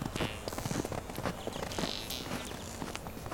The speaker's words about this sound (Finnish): Tjöp, tjöp, tjöp, tjöp, äläpä sano. Me emme pidä ehkä aina vaatteita, mutta kengät kopisevat kyllä kivasti.